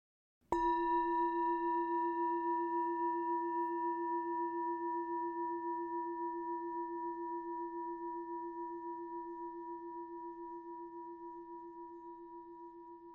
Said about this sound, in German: Wenn der Gong ertönt, öffne bitte deine Augen.